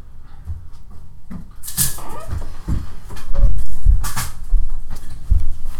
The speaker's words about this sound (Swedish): Uh, ja, det var lite kattfighter utanför men eh, det gick bra. Det är inget nytt under solen direkt. De bråkar ju typ en gång per dag.